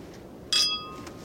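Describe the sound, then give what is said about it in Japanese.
Glasses of Koshu wine, a grape variety grown in Yamanashi, clink once in a toast, a bright ring whose high shimmering tones linger and fade over a fraction of a second in quiet surroundings. “ただきますチンチン乾杯チンチン”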